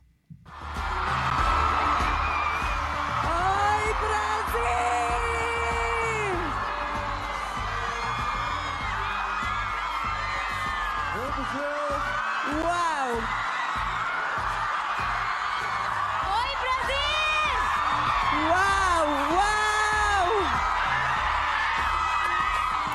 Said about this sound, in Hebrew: בוא נשמע איך קיבלו אותה הקהל העצום בברזיל, בסאו פאולו, ממש אה, בשתיים לפנות בוקר שעון ישראל, ככה זה נשמע.